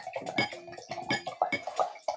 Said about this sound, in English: Oh, you guys might hear me pouring some wine.